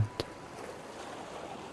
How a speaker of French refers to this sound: Et déjà, c'est comme vous évader au bord de la mer, à écouter les vagues et à m'écouter sans vraiment m'écouter.